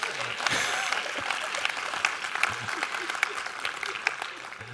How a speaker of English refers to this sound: Now, we're either going to clap for God or we're not going to clap for God, but if somebody claps, you better support them in their faith.